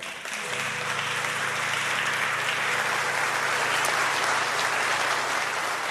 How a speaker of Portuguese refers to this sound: Ele está sempre com uma camisa preta, sempre lá nos bastidores, cuidando de tudo isso que vocês assistem pela internet, junto de uma equipe maravilhosa eu queria até que vocês pudessem aplaudir o nosso pessoal da mídia.